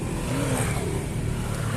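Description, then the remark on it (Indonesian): Steady engine rumble of motorcycles on a roadside, a low droning motor sound that holds at a constant loudness throughout. “dari tadi ada suara-suara motor ya ini di, di pinggir jalan pinggir jalan”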